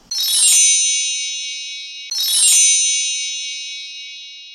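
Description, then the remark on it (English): Two bright, shimmering bell chimes ring out about two seconds apart as a jingle marking the start of the Becoming Who segment, each a sharp metallic strike that rings on and slowly fades, clear with no talking. “When y'all hear those bells, y'all should know what time it is.”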